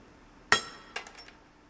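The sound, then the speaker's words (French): A hammer strikes stone twice, a sharp loud tap followed by a softer one, each leaving a brief bright metallic ring that fades quickly in a quiet space. A stone cutter taps the stone to hear whether it rings well and has no crack. “On cogne la pierre avec le marteau pour, voir si elle sonne bien, s'il n'y a pas une fissure, quand on taille.”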